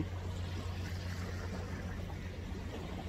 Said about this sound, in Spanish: El mar empezó a sonar fuertísimo. Voy a volver a poner pausa un momento. Listo, ya pasó.